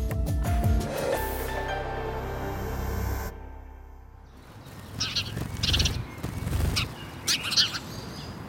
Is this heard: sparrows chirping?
yes